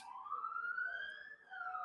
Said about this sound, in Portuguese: Tá passando aqui, vocês estão escutando a sirene.